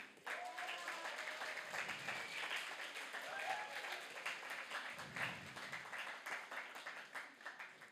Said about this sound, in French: je crois qu'ils méritent une tonne d'applaudissements.